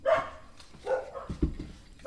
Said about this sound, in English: So sorry uh, about my dogs